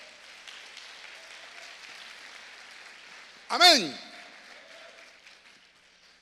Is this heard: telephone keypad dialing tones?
no